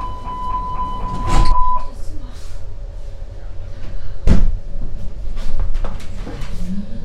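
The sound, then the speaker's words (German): A high electronic warning tone sounds for a couple of seconds as subway train doors slide shut with heavy thuds, amid the rumble of the carriage and faint background voices. “Ähm, das ist dieses Geräusch, wenn die Türen zugehen. Dieses, das ist so ein dit, dit, dit.”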